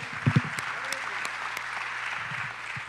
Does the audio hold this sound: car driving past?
no